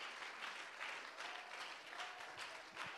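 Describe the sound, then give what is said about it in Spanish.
An audience applauds steadily for about three seconds as a clap offering to the Lord Jesus Christ, a dense wash of many hands clapping at an even level with no voices rising above it. “¿Por qué no le da un aplauso al Señor Can we give a clap hermano? offering to the Lord Jesus Christ?”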